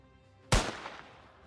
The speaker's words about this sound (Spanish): Porque tú escuchas un disparo.